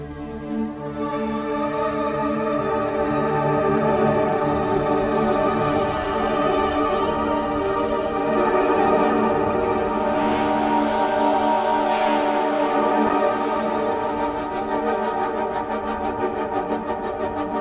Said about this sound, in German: Fangen wir mal an mit äh, den Fusion Frost Space Pads.